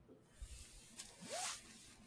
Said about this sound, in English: Can you hear that? Yes. That is the sizzle of my beer. Why is your beer sizzling?